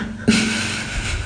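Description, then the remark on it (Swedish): A brief low gurgling rumble from a stomach, starting abruptly and fading into a steady soft hiss. Fairly quiet, with no talking. “Det var min mage.”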